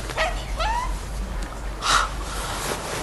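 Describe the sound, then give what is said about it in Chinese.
A small dog whimpers with a couple of high, wavering whines, then gives one short, sharp yip, over a steady low hum with no talking. “你这小狗叫什么呀？”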